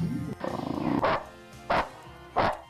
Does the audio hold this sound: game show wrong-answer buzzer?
no